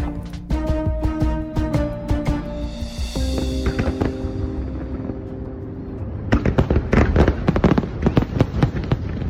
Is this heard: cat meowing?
no